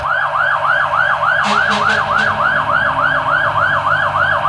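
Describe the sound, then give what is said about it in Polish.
A fire engine siren wails as the fire brigade heads out in a city centre, in a rapid, repeating up-and-down pattern, loud and steady throughout, with a few short horn-like blasts partway through over a low rumble of city traffic. “E, e, albowiem, o, straż pożarna wyjeżdża, to jest życie, prawda? Centrum miasta, kocham to.”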